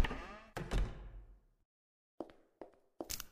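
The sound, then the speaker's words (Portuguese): A kitchen door unlocking and opening: a few heavy clunks with a ringing tail, then a short silence and three sharper metallic clicks spaced out, fairly loud, with no voices. “E como esperado, a porta abriu.”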